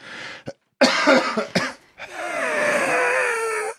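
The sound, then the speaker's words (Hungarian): Harsh coughing from sick lungs after an illness: a short hack, then a rough, rattling burst, followed by a long wheezy, crackling breath that rasps on for nearly two seconds. No one speaks. “ilyen furcsa, furcsa hangja a tüdőmnek azóta”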